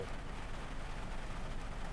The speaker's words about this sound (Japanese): でここでなんですけど雨降ってきた今車の中で撮ってるんですけど